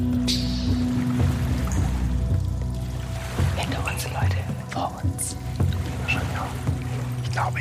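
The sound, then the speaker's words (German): Soft water lapping gently at a steady pace, with scattered small drips and splashes over a constant low rumbling background, at the entrance of a cave. “Mhm, und ihr nehmt alle jetzt, wo er das vor allem auch sagt, so ein leichtes Wellenrauschen”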